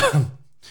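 A single sneeze: a sharp, breathy burst that drops into a short voiced tail and fades quickly, followed by a brief hiss of breath. No one speaks.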